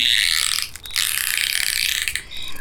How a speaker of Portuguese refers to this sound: Depois, eles foram calando, meio com sono, e só se ouvia de vez em quando uma rede rangendo